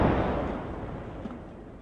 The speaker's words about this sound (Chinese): 紧接着就是空气炮炸响的声音，还有玻璃碎裂的声音。